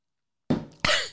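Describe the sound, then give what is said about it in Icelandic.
Two loud, harsh coughs in quick succession from someone who choked on coffee; the second is sharper and more forceful. “Kaffi stóð í mér”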